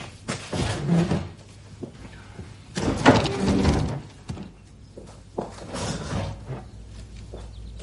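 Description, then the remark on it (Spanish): Someone stands up and pushes the three left-hand chairs in against a table, each a short scraping slide with a knock, fairly loud, separated by brief pauses. “Se levanta y pega a la mesa las tres de la izquierda.”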